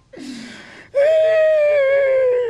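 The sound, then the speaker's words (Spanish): A person cries out in a short breathy whimper, then a loud, drawn-out wailing sob that slowly sinks in pitch, alone with no talking, crying over being unable to find a joke. “Estoy llorando porque no encuentro el chiste ahorita.”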